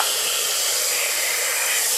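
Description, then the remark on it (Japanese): Water pouring steadily into a pot to boil spaghetti, a continuous bright rushing hiss that holds an even loudness for about two seconds, with no voices. “水を入れる音からはいドンはいお湯を沸かしましょう”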